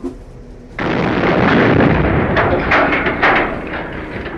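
A dynamite explosion erupts abruptly after a brief low hum, then rolls on as a loud, sustained roar of rumble and crackling debris that slowly eases without fully dying away.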